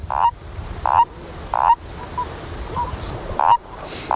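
A common toad calls in short, repeated croaks at a steady, unhurried pace, five or six in a row, clear over a soft, hissy outdoor background.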